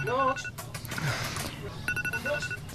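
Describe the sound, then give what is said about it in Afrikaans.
A mobile phone rings from inside a handbag with bright electronic tones in short repeating bursts, against a busy background with muffled voices. “Wat is my foon nou? Ag, oh, nog in my handsak.”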